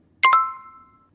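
A bright two-note chime from the Babbel language-learning app, two quick bell-like strikes in fast succession, then a clear high tone that rings on and fades out over about a second. No voices.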